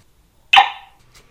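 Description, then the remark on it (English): A single sharp, loud bark from Abby, a cattle dog in central Missouri, USA, rings out as a greeting, cutting through an otherwise quiet moment with a brief tail of decay afterward. “Abby, my cattle dog and super vigilant co host. Say hi, Abby.”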